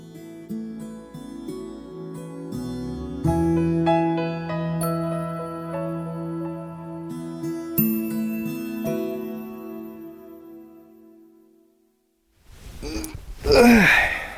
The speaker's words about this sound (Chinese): 睡醒了， 哎，是啊，是不是我打呼声吵到你了？哎，不好意思哦，